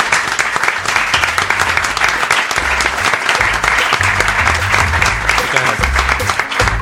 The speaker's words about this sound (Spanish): Bueno, señores, por favor, un aplauso,